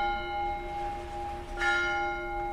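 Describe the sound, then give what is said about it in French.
Church bells of the Saint-Jean-Baptiste church, built against the town hall in the former castle, ring out with a sustained, shimmering tone, a fresh strike adding brightness partway through while the resonant hum lingers steadily. No voices are present. “Et justement, on entend l'église Saint-Jean-Baptiste.”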